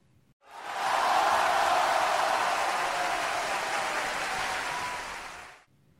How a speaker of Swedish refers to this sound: Och en amfiteater, ja, det är en teater med läktare anordnade som en ring runt arenans mitt. Plötsligt hörs ett vrål inifrån arenan.